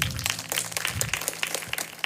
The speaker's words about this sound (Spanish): Puedes tomar tu lugar ahí donde estás y darle un fuerte aplauso a Dios.